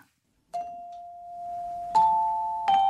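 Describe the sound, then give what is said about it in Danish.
Three clear, ringing bell-like notes sound one after another, each struck sharply and left to sustain, forming the opening of a short melody, the oldest Nordic melody, with no voices present. “Den ældste melodi, det er denne her.”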